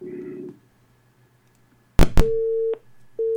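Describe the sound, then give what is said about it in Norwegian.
A telephone ringing tone on a call line as someone calls back to get rid of an echo: two sharp clicks, then a steady electronic tone that sounds, pauses briefly and starts again, clear and fairly loud with no talking. “Jeg tar og ringer tilbake.”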